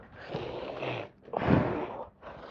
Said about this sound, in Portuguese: Caralho, respirando 17 vezes antes de matar alguém.